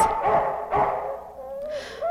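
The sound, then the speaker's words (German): Dogs bark twice in quick succession, loud, followed by a drawn-out whining tone trailing off at the end, with no talking. “schnapp dir mal die Köter und bring sie ins Tierheim.”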